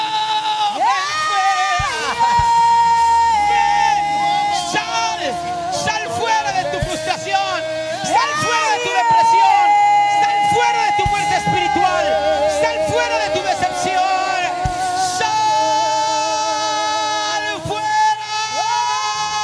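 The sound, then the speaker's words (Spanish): A large audience shouts and cheers continuously after a countdown call to shout, many voices overlapping in loud, sustained yells and whoops that swell and surge together for the whole stretch. “Hay sanidad en ese grito, hay liberación en ese grito.”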